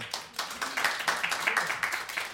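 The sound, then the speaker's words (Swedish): A small group claps steadily after a poetry reading, the overlapping hand claps forming a brisk, moderately loud patter of applause that carries on without pause and with no one speaking. “Vad fint, applåd!”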